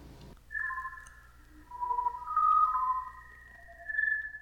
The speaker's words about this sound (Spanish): Aprovecho también para comentar que algunos de los sonidos que estoy usando para las pausas en este, en este episodio son de la NASA, son de hecho sonidos del espacio que la NASA subió a internet ahora que fue temporada de Halloween